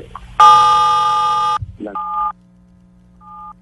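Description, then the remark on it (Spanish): Telephone keypad tones from the buttons of a phone during a call: a long, loud beep, then a shorter tone a moment later, and finally a faint, brief dual-pitched blip, each separate with no talking. “General, se le, se le están escuchando allá los botones del teléfono.”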